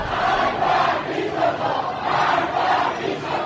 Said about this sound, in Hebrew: זה לא בדיוק פריים, זה סיטואציה, וזו סיטואציה של אה, הפגנה נגד המשטר. ואתה שומע את הקולות נגד המשטר, ואתה אומר, וואו, זה לא מה שחשבתי.